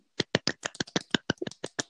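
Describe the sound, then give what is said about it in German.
A short burst of quick hand clapping, about a dozen sharp claps in a slightly uneven rhythm, given as a small round of applause for passing a theory exam, with no talking over them. “Einen kleinen Applaus dafür.”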